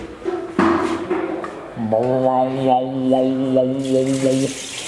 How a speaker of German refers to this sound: Ah, Regenmaschine? Geil.